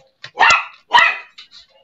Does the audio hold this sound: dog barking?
yes